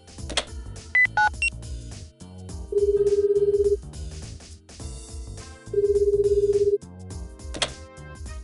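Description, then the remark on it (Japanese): A quick run of short dialing beeps as a phone call is placed to Dr. Black Star, followed by two long, steady phone ring tones separated by a pause, all over soft background music. “おっと感心している場合じゃないですねブラックオシ博士さんに電話しないと”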